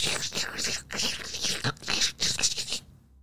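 Plastic crinkles and rustles in irregular bursts of crackling for a few seconds, as if being pulled and squeezed, heard from inside a toilet, then abruptly falls silent.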